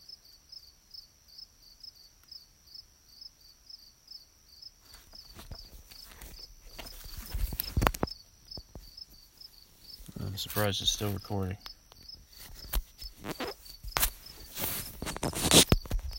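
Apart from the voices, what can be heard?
crickets chirping outdoors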